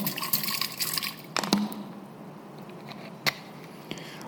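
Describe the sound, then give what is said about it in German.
Water pours and splashes from a small bottle for about a second, then trails off into a few scattered drips and soft trickles over quiet background. “Bei mir kommt er wahrscheinlich mit so einem Fläschchen. Okay? Und das gefällt dir, weil du merkst, das fließt in dich rein.”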